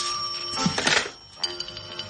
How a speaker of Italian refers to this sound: perché non rispondi al telefono? Avanti.